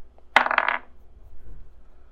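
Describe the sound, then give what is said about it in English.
Dice rolled for a wisdom check clatter across a tabletop in one quick, bright rattle lasting about half a second, then settle into quiet with faint room noise; the roll totals 14. “Roll wisdom to see if I can hear the actual voice in my head.”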